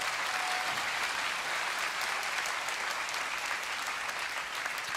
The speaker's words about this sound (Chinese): 难道我们不应该为我们的万王之王、万主之主，十倍百倍更热情的来敬拜他？哎，愿意的拍手，把荣耀归给主。